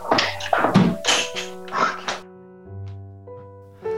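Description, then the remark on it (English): A door is handled and shut with a few dull thunks and rattles, then a low steady hum lingers. No one speaks. “Sorry, I have to grab my door.”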